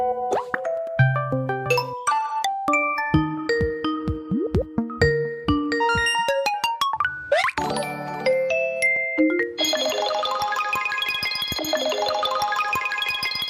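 A quick succession of smartphone app notification and ringtone sounds: synthetic alert tones, plops, chimes and boings, one after another with no talking, ending in a dense bubbly electronic jingle.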